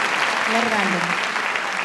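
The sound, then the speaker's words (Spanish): A crowd claps steadily for an audience member's answer, a dense, even wash of applause with no breaks, while a voice briefly rises over it partway through. “Me encanta la respuesta, merece un aplauso, ¿eh?”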